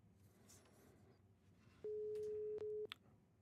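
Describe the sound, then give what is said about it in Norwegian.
A phone ringing tone from an outgoing call placed on a phone sounds once: a loud, steady electronic hum lasting about a second, clear over a faint hiss of background noise, with no one talking. “Nå ringer jeg her fra min telefon. Hører vi lyden av det?”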